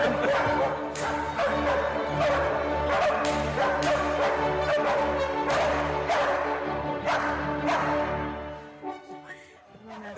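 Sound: dogs barking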